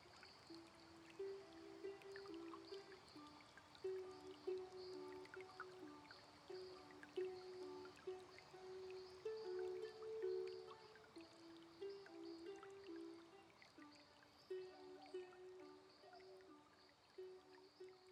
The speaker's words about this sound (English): and gentle streams meander through the forest in the cool shade. their babbling waters. A soothing lullaby